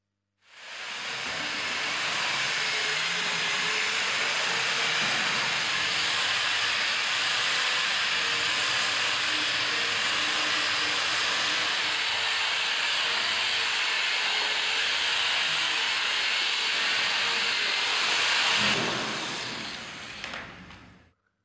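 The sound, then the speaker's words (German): A power sander runs steadily for about eighteen seconds, sanding down filled (spackled) patches on a wall: a loud, unbroken hiss over a faint motor hum, then it winds down and stops. No one speaks. “Und dann ist das Problem, dass man damit noch nicht fertig ist, sondern dann guckt immer so was Ekliges raus aus diesen gespachtelten Stellen und da muss man schleifen und wir haben geschliffen.”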